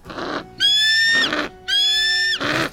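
Two loud, shrill screeches from Norman, a pet golden eagle, ring out in quick succession, each a drawn-out piercing cry, separated and followed by harsh, raspy noisy bursts, with no talking.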